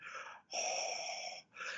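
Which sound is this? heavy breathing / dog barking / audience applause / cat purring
heavy breathing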